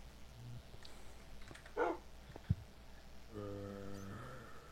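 A dog in a video game gives one short, muffled bark, followed a moment later by a drawn-out whining tone, all fairly faint over a low background hum, with no one speaking.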